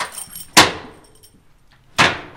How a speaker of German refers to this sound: schließt die schwere Tür auf.